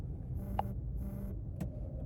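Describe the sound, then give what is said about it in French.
Two short, quiet electronic chimes from a phone announcing a received text message sound in quick succession, followed by a faint click, all over the steady low rumble of a car interior with the windows closed. “Oh, je viens de recevoir un text message, je pense.”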